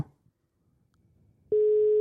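A steady electronic telephone tone starts abruptly after a quiet moment and holds loud and unbroken to the end, like the ringback heard while a call connects, as a friend is phoned.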